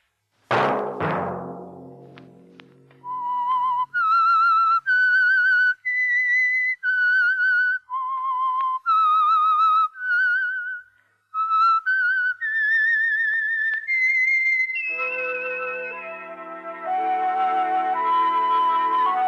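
A solo whistled melody, the theme of the radio program The Whistler, clear and moving through a string of sustained tones with gentle vibrato, after a brief burst at the start, then giving way to a sustained orchestral chord.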